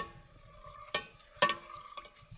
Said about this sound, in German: Ich rühre gerade oh. den Glühwein um. Ich mache nämlich gerade Glühwein.